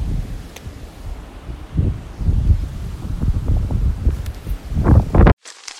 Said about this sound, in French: il y a un vent très fort aujourd'hui. La nature parle